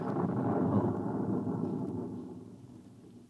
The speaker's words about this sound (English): You see, sir, it takes a while for the vibrations of an explosion to travel three miles and then reach through 15 feet of concrete.